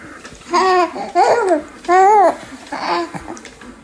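A baby babbles in four short, high-pitched bursts with rising and falling, sing-song tones, some sounding like little laughs. Fairly loud, with brief pauses between and no adult talking.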